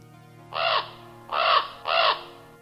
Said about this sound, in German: Und man kann auch hören, wie tief in diesem Nebel drin hin und wieder die Raben rufen.